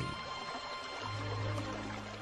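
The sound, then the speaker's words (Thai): Steady rushing of flowing water, muffled and continuous, with a low rumbling undertone that swells partway through, heard through a stone slab at the bottom of a dug pit by a man pressing his ear to it while digging for water. “โอ้เสียงข้างล่างตรงนี้มันเสียงน้ำนี่ใช่แล้วเสียงน้ำไหลมากมายเลย”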